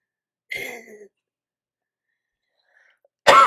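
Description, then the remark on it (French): Two harsh coughs from a person with poorly controlled asthma who had held them back until a question was finished, separated by about two seconds of silence: a raspy, breathy first cough, then a louder, sharper one right at the end. No one speaks. “Je retenais, j'essayais d'attendre que tu finisses ta question pour tousser, puis j'ai pas été capable.”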